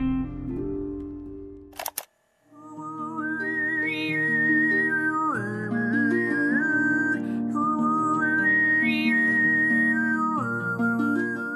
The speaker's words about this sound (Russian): То, что она делает, называется абертональное пение. Это такая техника, когда певец берет две ноты одновременно.